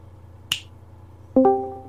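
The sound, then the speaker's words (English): A single crisp finger snap rings out against a quiet background, followed about a second later by a short, bright two-note electronic chime that fades out. “You just snap your fingers and he's came back.”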